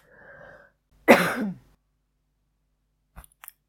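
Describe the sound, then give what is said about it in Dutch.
A single muffled cough bursts out after a soft breathy lead-in, from a speaker trying to cough as little as possible into the microphone, followed by quiet and a couple of faint clicks near the end. “Eén ik moet even hoesten, maar even kijken hoe ik dat zo min mogelijk kan doen op de microfoon.”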